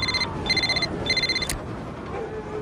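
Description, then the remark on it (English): A telephone rings in three quick electronic bursts with short gaps, a bright trilling tone standing clearly over a low background hum, then stops abruptly. “Rob, get the phone.”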